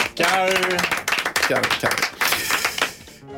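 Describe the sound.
A short burst of applause from a small group during a Mix Megapol radio show, dense rapid claps running throughout with voices speaking and calling out over it, then dying away abruptly at the end.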